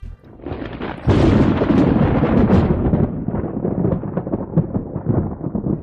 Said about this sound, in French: quoi de mieux que la foudre comme thème de cette première discussion Cette manifestation soudaine de l'orage que tout chasseur convoite. Cet événement si puissant et si ostentatoire, mais paradoxalement si difficile à capturer.